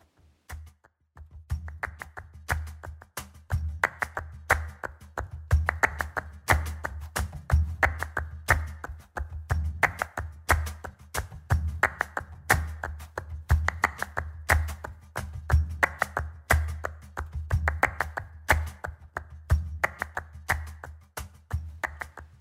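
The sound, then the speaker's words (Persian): Rapid, rhythmic flamenco palmas hand clapping, as heard in Spanish flamenco music, fills the whole stretch, crisp, the claps driving in a steady pattern over a low, sustained musical accompaniment. “پالماس در موسیقی فلامنکوه همون صدای دست زدنی که در اغلب موسیقی های فلامنکوی اسپانیایی به گوش میرسه”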